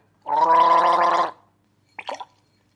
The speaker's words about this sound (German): Kommen wir nun zum SARS-Test-Starter-Kit von Zenoba Medicare. Hier wird mit klassischen Messstreifen gearbeitet. Einfach mit Wassergurgeln danach in Becher spucken.